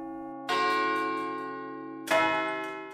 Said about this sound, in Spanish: Entre un montaje escénico y otro ha encontrado tiempo para crear Tantalán, la web en la que lleva recopilados los sonidos de 810 campanas de catedrales, iglesias, monasterios, colegiatas y ermitas de una treintena de provincias de toda España.